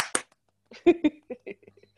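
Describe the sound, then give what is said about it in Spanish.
Two quick, sharp hand claps ring out right at the start. After a short pause, a voice follows with a series of short vocal bursts. “Ya, nos vamos a tomar un momento para hacer aplausos.”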